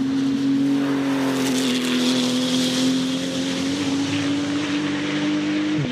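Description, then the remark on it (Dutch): The water-cooled 3.8-litre six-cylinder boxer engine of a Porsche 911 GT2 RS Clubsport, a 700-horsepower race car of Max Verstappen weighing just under 1400 kg and one of 200 built, roars at a steady high pitch for several seconds with slight dips and surges, loud and continuous with no one talking. “Een eh, Porsche 911 GT2 RS Club Sport. Met een 3,8 liter boxermotor en 700 trappelende paardjes.”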